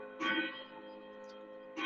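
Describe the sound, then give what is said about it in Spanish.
Bells ringing, with two fresh strikes a moment apart and steady, layered metallic tones humming on between them at a moderate level; no one speaks. “Estamos oyendo las campanas, ahorita les termino de platicar.”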